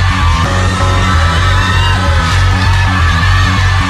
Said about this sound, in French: Et c'est l'heure de la vérité puisque c'est le public qui parle maintenant, vous l'entendez vous acclamer au loin.